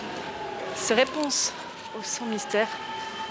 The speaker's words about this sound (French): Et en fait, il se trouve que je suis dans le métro à Paris. Donc attends, je monte dans le métro.